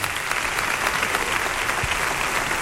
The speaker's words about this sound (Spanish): y que salen estos momentos, también para recibir el aplauso del público del teatro.